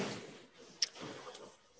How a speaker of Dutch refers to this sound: We horen dus op de achtergrond de hele tijd eh, onze hond Lucky, die eh, even anders gaat liggen op het kussen. En ik vind het dus heel irritant. En iedereen die nu naar de podcast luistert, die denkt: wat voor geluid is dat?